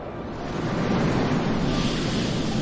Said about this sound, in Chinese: 海浪来了，鳄鱼爸爸把小鳄鱼抱起来转圈圈，哇，好好玩哦！